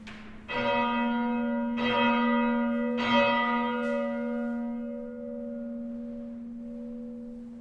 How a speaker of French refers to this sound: Sonner un glas, c'est par, exemple, par exemple trois coups d'affil. Donc, donc, donc mais on ne lance pas la cloche. Il faut la bloquer pour que ça sonne.